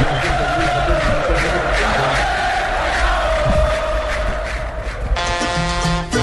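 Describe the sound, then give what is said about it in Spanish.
A large crowd roars and shouts continuously, a loud dense wall of cheering like a packed stadium, with a sustained tonal blare joining in near the end. “los niños para todos los que quieren soñar que algún día les griten aquí.”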